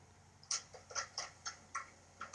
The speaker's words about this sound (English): Don't know where it's coming from. It's like a, a clanking. There's, there's water dripping on the, the windowsill outside. Yeah, so can you hear it? I don't know. I can just hear like a. It sounds like you're tapping a pen or something.